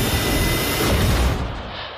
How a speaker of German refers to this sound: Es ist hier sehr laut weil der Kapitän die Düsen der Hypo-Hyperspace angeschaltet hat.